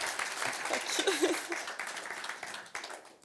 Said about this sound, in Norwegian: Det er verdt en applaus.